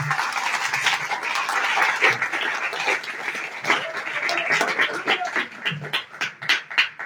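A church audience applauds God during a sermon in a dense, steady wash of clapping that holds for several seconds, then thins out into scattered individual claps before fading.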